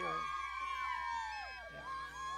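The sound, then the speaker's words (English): A sound effect of a group of women cheering and whooping together in high, overlapping voices, a loud, steady burst of excited shouts that dips briefly near the end before swelling again. “Where's my cheering girls?”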